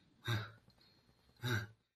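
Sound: imitated heavy breathing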